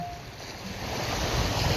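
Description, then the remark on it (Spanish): Ocean surf rushes onto the shore in a continuous, broad wash of noise that swells slightly louder toward the end, with no voices present. “Déjala ir, déjala ir con las olas del mar.”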